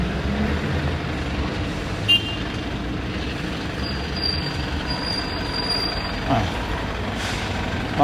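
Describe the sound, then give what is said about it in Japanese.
Heavy morning street traffic at about 7 a.m. on a walk toward the Louvre in Paris rumbles steadily, engines droning with a truck passing and a brief air-brake hiss, plus occasional faint high beeping in the background. “いや車が多い”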